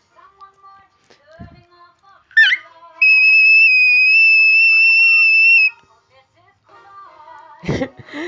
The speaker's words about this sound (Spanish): el más agudo posible, es llamado whistle tone o whistle voice voz de silbato o voz de silbido